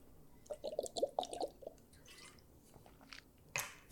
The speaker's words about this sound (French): Fait que euh, prendre une, petite gorgée d'eau avant mon exemple.